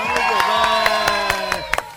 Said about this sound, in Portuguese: Palmas pra ela!